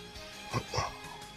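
A dog barks twice in quick succession, two short, muted woofs against a quiet background.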